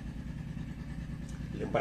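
A motorcycle engine rumbles steadily with a low, throbbing drone, then rises briefly in loudness near the end as though it is going by.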